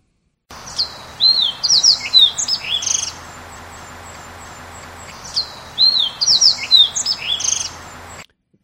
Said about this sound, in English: So you can kind of hear those whistling, uh, sliding whistles that the fox sparrow does.